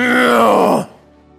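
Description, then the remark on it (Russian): A voice imitates an annoyed child's growling groan in response to a parent's request: one loud, throaty sound that slides downward in pitch for under a second, then cuts off into near silence. “Я не знаю, у вас тоже дети иногда рычат? В ответ на вашу просьбу.”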